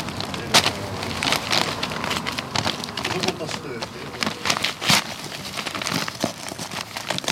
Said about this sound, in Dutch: Er wordt snel hardend beton, turbobeton dus, rondom de capsule gegoten.